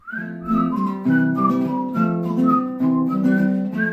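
Someone whistles a wandering melody over steady strummed guitar chords, the pitch slightly unsteady and thin, like a casual home performance; an amateur cover version of a whistling tune posted on YouTube.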